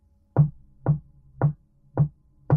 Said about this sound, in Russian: Медленный стук продолжался позади него.